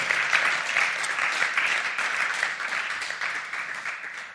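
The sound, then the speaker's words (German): Steady crowd applause for the two designers of a Bible reading plan, many hands clapping in a dense, continuous patter that stays loud and even throughout before easing slightly at the end. “Einen großen Applaus für euch beide.”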